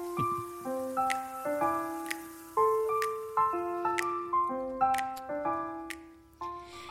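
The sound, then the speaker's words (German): A short, bright run of ringing, glassy tones as wine glasses clink one after another, with a few sharp pops of corks mixed in; no one speaks. “Ihr habt's gehört, die Korken knallen wieder und die Gläser klirren wieder.”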